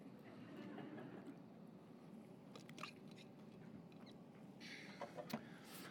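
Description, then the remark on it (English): Quiet mouth sounds of someone sipping water, with a few soft wet clicks and swallows over a steady low room hum, no talking. “Let me get a sip of water real quick.”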